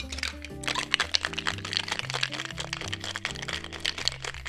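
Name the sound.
cocktail being shaken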